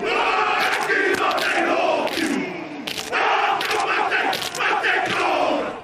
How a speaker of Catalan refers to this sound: Estem sentint les veus dels jugadors de rugby de la selecció nacional de Nova Zelanda. Gràcies al ball tradicional maori i la haka, que acompanya aquest antic camp de guerra, tot el món coneix els All Blacks i el país que representen.